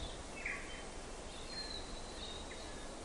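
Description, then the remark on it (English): Birdsong of native birds waking up at dawn drifts through a steady hiss of outdoor ambience, a few thin high whistles and chirps scattered over a few seconds in bush a few hundred metres from the road in the Otira Valley on the west coast, with sun glinting off snowy mountains. “The sun's glinting off the snowy mountains towards Arthur's Pass, and the birds are waking up.”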